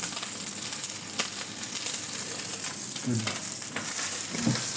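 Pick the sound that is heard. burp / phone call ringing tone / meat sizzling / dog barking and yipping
meat sizzling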